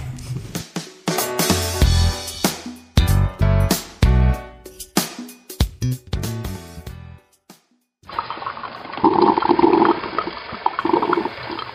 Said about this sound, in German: Das zischende und blubbernde Geräusch einer Kaffeemaschine und der dazugehörige Geruch von frisch gebrühtem Kaffee sind für mich ganz starke Kindheitserinnerungen.